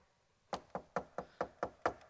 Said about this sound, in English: and He knocks.